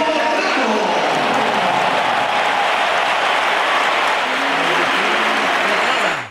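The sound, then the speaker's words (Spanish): A massive stadium ovation of about 40 seconds at the Bernabéu as Sergio Ramos's number 4 is read out at the end of Sevilla's lineup: dense, sustained applause and crowd roar filling the whole clip at a steady, loud level, with scattered shouts rising through the wash of clapping. “Ovación de unos 40 segundos, ovación cerrada para el Camero.”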